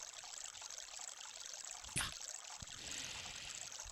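Steady trickling of a small brook, a continuous watery hiss and burble with a couple of brief splashes or knocks, moderately quiet, no voices.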